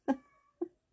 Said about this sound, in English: That's the cat, by the way. He's really annoyed that I'm not um, doing his bidding right now.